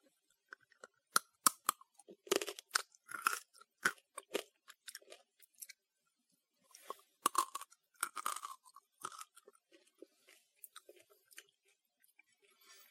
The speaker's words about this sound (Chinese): 但是它这个直接炸的话也不会生，就是觉得还是挺脆的。听一下这个声音就知道了。